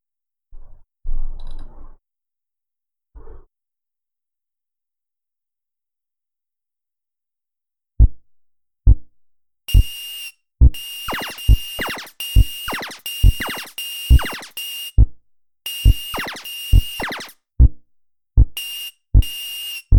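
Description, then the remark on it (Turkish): A retro arcade game: a steady low bass pulse, the game's background music, thumps about once a second, joined midway by rapid, harsh bursts of chuffing electronic firing sounds, loud, with no talking. “tren bacası gibi çıkan ses ateş etme sesi. Onu background'da karıştırmayın. Bob. Bob. Bob falan diye bir şey geliyor. Background müziği o.”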